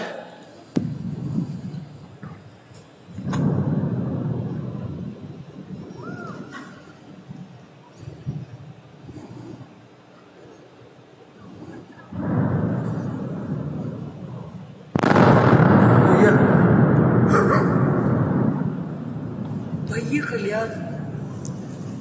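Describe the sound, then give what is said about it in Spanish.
A series of heavy explosions from a nuclear blast using a radioactive isotope, with a mushroom cloud and shock wave, each a sudden loud boom followed by a long rolling rumble. The biggest blast comes late and is the loudest, with quieter stretches in between. “Si se dan cuenta aquí, hay una explosión muy grande, pero no hay una combustión muy grande.”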